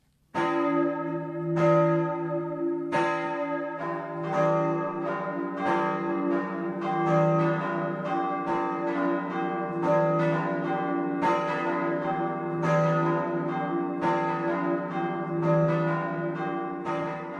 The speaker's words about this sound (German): Das 12 Uhr Läuten kommt heute aus Großhardt-Penning in Oberbayern.